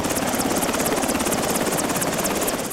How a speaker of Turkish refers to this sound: Karla kaplı dağları, yolları aşamayan, köylerinden bile çıkma şansları olmayan hastalar için havalandı askeri helikopter. Üçü kadın, ikisi erkek, beş kişi kent merkezindeki hastaneye ulaştırıldı.